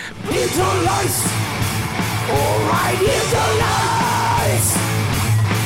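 Loud, dense heavy metal music plays throughout, with distorted wall-of-sound guitars and a steady low drone under harsh, shouted vocals that rise and strain above the mix.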